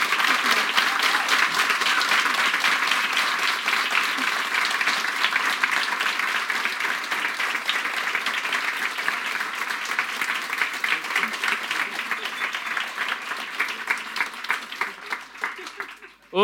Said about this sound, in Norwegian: Jeg syns dere skal gi dem en stor applaus for takk for innsatsen.